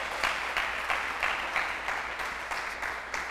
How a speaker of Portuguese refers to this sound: Dá um aplauso ao Senhor.